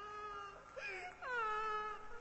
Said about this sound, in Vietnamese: Ông trưởng thôn văng vẳng nghe tiếng vang lên. Khi có tiếng ai đó khóc ai oán, nức nở từng hồi, lúc như thật gần, khi lại thật xa.